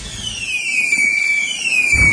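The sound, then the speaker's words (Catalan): Fireworks going off, in a radio advert for the Manli fireworks shop for the Sant Joan revetlla: a long, high whistle glides steadily downward over a bed of crackling noise, ending with a loud low bang. “A Manli seleccionem el millor en pirotècnia, bateries, bengales, trons, coets”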